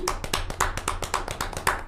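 applause

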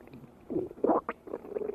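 stomach rumbling

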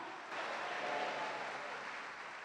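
audience applauding

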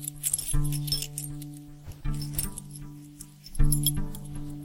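keys jangling

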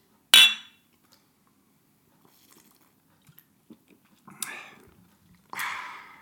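glasses or bottles clinking

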